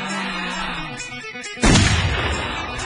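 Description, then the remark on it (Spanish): A loud explosion sound effect bursts in suddenly after a stretch of busy background noise, its deep booming rumble rolling on and slowly fading to the end. “Fuerte las explosiones porque la emoción se viene con todo.”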